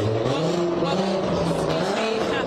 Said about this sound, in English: Loud cars going by, excuse me